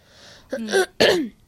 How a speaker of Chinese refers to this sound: 清清嗓子先